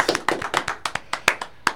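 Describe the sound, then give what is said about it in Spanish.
Brief, scattered applause from a small group for a student's grade average, a quick run of sharp, uneven hand claps, moderately loud, with no voices over it. “Ok, dale un aplauso.”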